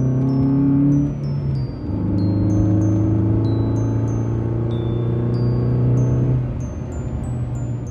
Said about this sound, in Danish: De er alle sammen hoppet ind i bilen og kører nu i fuld fart ned til byen for at se, om de kan nå at komme ned til blomsterhandleren, inden de lukker.